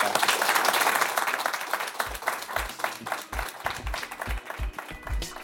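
An audience breaks into dense, sustained applause that thins out after a couple of seconds as a steady, thumping music beat comes in beneath the fading claps.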